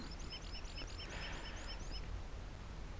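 A rock pipit calls in a quick run of thin, high chirps, about a dozen notes in two seconds, then falls quiet while a steady low rumble continues underneath.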